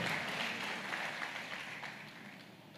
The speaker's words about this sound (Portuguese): Aleluia! Aleluia! Pode aplaudir ao Senhor mesmo. Pode aplaudir ao Senhor mesmo.